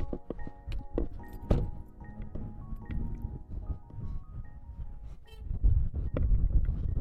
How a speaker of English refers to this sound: Oh, it's windy.